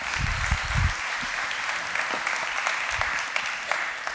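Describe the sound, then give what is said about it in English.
A crowd applauds steadily during a sermon, a dense wash of many hands clapping at an even level throughout, with a few low thumps early on and no voices. “Now you can clap.”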